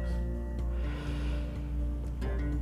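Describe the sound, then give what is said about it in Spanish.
During a breathing exercise, a deep breath is drawn in through the nose, held for two or three seconds, then let out in a soft, airy rush, all over a steady, sustained musical drone in the background. “Porque vamos a imaginar que por ese aire que recibo va a entrar vida, prana éter cuántico. Lo sostenemos dos o tres segunditos y lo botamos.”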